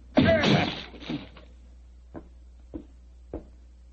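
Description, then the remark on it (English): A loud splintering crash as a locked door is forced open, followed by three brief, evenly spaced thuds that grow quieter. No voices are heard. “Open the door. Well, it's locked. Never mind that. Get your soldiers into it.”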